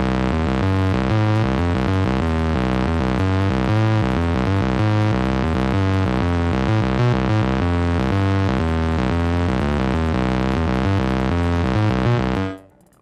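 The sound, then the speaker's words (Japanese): A steady synth melody with a layer of gritty lo-fi noise and hiss over it, playing loud and continuous, then cutting off abruptly near the end. “ちょっとノイズの乗り方がやらしいですね、ローファイ。”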